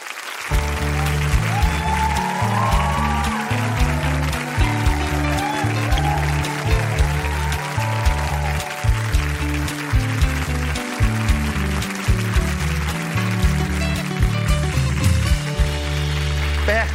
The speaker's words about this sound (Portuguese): Aplaudam Bárbara Gância!